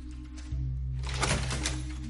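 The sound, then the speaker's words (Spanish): In a lab, Walt opens a door over a steady low electrical hum. The hum steps up in pitch partway through, followed by a sustained, moderately loud rush of scraping, rattling noise. No one speaks. “En el laboratorio, Walt abre la puerta.”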